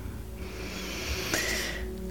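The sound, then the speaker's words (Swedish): A slow, deep breath drawn in through the nose or mouth, a soft airy hiss swelling for about a second over a steady low background hum. “Andas in”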